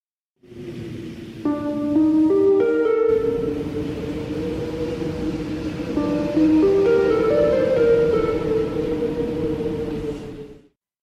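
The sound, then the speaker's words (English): Calm, gentle game music, the peace layer played when everything is going well in the game, over a soft, breathy wind bed, with mellow mallet notes stepping upward and harp-like tones joining later, steady and sustained for about ten seconds with no talking. “And so the peace layer has the wind sound and the nice soft mallet sound and this harp sound which comes in towards the second half of the, the track.”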